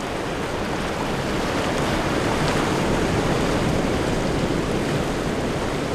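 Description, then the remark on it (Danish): Skagerrak sea waves break continuously over a sandy reef from the west, where they meet the Kattegat at the tip of Jutland, Denmark, in a dense, steady, loud roar of surf, with a wash of wind mixed in and no distinct gaps between waves. “Skagerak har hissige bølger, der slår ind over revet fra vest og brydes i mødet med Kattegat der er anderledes mildt.”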